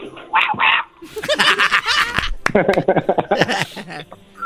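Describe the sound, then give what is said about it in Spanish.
A person imitates a tiny dog with a few high, squeaky yips, followed by rapid, broken yappy vocal bursts, fairly loud with no other sounds around. “¿Puedes hacer el ruido de un perro más chiquito todavía?”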